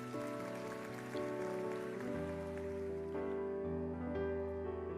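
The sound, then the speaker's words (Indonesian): An audience applauds for God with dense, steady clapping that holds for several seconds, mixed with sustained keyboard or organ chords that shift pitch underneath. “Tinggal tetap yang setuju berikan tepuk tangan yang meriah buat Tuhan.”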